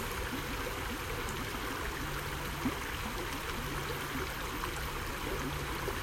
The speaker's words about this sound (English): Then bring your awareness to the sound of the water, sound of the stream running over the rocks. Maybe you can see or feel yourself at your favorite spot close to its stream.